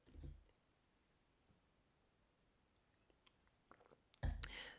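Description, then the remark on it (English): Someone takes a quiet sip of a drink: a soft burst, faint wet mouth clicks in near silence, then a louder breathy swallow and exhale at the end. “Let me take a sip.”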